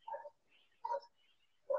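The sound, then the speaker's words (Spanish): Three sharp dog barks spaced about a second apart, fairly faint, with quiet background in between and no talking. “perdón si ladran unos perros”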